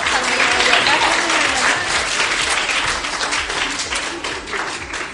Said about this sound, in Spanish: Bueno, pues vamos a darle un aplauso a esta chica